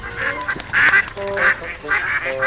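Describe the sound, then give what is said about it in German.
A series of loud, nasal duck quacks in quick bursts, about four or five calls with short gaps between them, without any talking. “Welches Tier suchen wir? Ich sag es dir. Es ist die Ente.”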